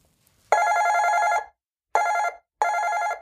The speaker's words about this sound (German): Einmal lang, zweimal kurz. Das war Lauras typisches Klingeln, wenn sie Familie Grübelstein besuchte.